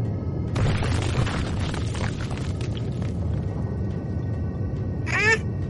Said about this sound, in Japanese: どこからともなく、地響きの音が聞こえてきて、地面が揺れて、祠が真っ二つに割れた。